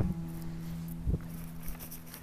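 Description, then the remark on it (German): Light rain patters softly outdoors, heard from a speaker standing under a tree, a steady faint hiss with scattered small taps, a low hum underneath and one dull thump midway. Nobody speaks. “Ich wage mich jetzt noch mal raus, denn es regnet gerade.”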